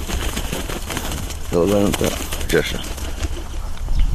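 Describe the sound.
A falcon named Tição takes off from the glove at an airfield with a quick burst of flapping wingbeats for a short flight, over a steady outdoor background hiss, with a short tonal call or voice partway through.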